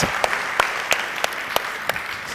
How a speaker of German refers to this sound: wir möchten euch herzlich willkommen heißen. Auf der Tür Lörrach, lasst uns Applaus geben und sagen, schön, dass ihr mit dabei seid.